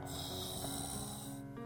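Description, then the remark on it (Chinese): Brontie, a small pet dinosaur, snoring while asleep in a pasta pot with its lid on, a single long, rumbling snore with a rough, buzzy rasp that holds steady and loud before cutting off abruptly near the end. No one speaks. “这就是布朗提睡觉时发出的声音。”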